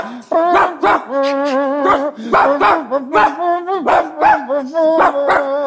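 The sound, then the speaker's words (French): A pack of hunting dogs barking and baying loudly, their yelps and drawn-out howls overlapping in a steady, insistent chorus that never lets up, as the hunt opens and the dogs set off. “Allez, la chasse est ouverte, les chiens partent.”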